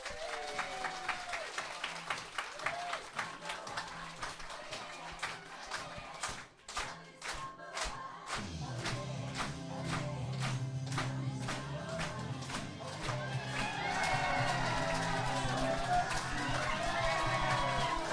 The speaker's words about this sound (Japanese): 拍手が鳴りやまない